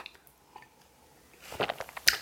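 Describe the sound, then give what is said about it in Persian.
A person drinks water: a short burst of wet mouth sounds after a near-silent stretch, a few soft swallowing gulps and lip smacks, like quick sips. “فقط با اجازهتون آب بخورم و بعد ادامه بدم”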